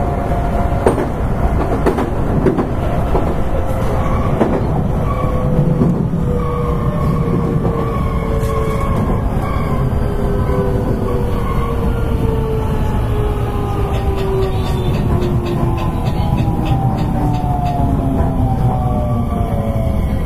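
A JR West 223 series electric train on a JR Kobe Line rapid service from Kobe to Osaka, Japan, runs steadily on rails, with a continuous loud rumble, rising and falling motor whine, and occasional rhythmic clacks over track joints, without any talking.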